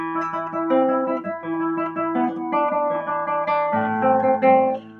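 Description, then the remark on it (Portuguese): Plucked string notes ring out clearly and overlap, the note E held sounding together with B, then the player lifts the fourth finger and places it for the next, lower note D. Moderately loud, with no talking. “Só depois eu tiro o dedo 4 e posiciono para a nota Ré.”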